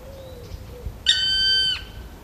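A black woodpecker gives one loud, drawn-out call lasting under a second, a piercing, ringing note that ends in a brief downward slur. Faint, thin tones sound before it, and no one speaks.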